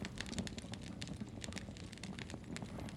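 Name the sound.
fire crackling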